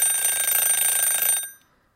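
household object, alarm clock ringing

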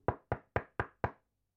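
household object, knocking on a door

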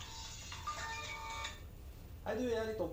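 signal or alarm, phone ringtone

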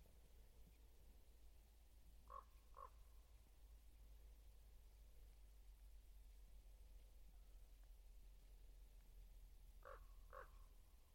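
bird, raven calling

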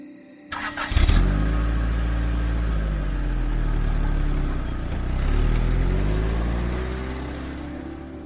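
vehicle, car engine driving

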